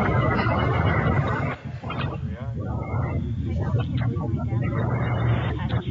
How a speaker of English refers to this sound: We got a double soundtrack there